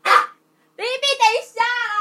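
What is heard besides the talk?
dog barking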